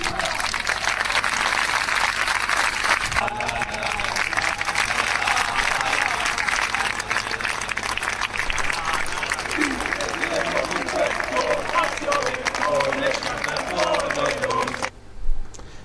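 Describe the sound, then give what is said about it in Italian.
A large crowd of football fans in Cagliari applauds steadily and loudly for about fifteen seconds at a tribute to Gigi Riva, dense clapping mixed with scattered cheers and voices, before cutting off abruptly near the end. “Questi erano i tifosi accorsi oggi a dare omaggio al grande campione.”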